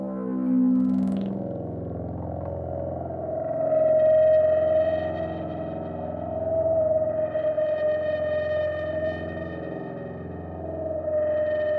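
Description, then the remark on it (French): A sustained, buzzing synthesizer drone built from layered oscillators, with a steady bright tone and shifting filtered harmonics that swell and recede over about twelve seconds, no voices. “On travaille sur, les, sur la hauteur du son, on travaille sur des filtrages, sur des mélanges d'oscillateurs.”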